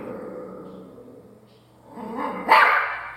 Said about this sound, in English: he doesn't realize that is him. He's just barking and growling at himself.